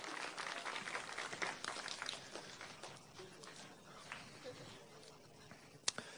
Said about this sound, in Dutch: Ik wil, jullie mogen allemaal weer gaan zitten. Dank jullie wel. Applaus voor de muur.